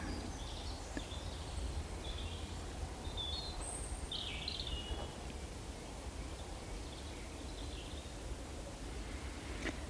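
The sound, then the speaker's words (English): A bird sings faintly at dusk in the woods, a few brief high chirps and short phrases scattered over a steady low hiss of outdoor ambience, with no voices. “So, if that is a male, regardless of how tired he is, from all the building work, he's still going to sing into the night.”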